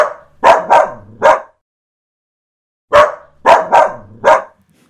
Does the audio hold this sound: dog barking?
yes